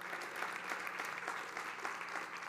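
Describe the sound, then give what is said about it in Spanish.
An audience claps steadily as a greeting sent to a friend in Buenos Aires, Argentina, a dense wash of many hands applauding at an even level throughout, with no voices standing out. “Recibe este aplauso y nos da mucha alegría poderle saludar.”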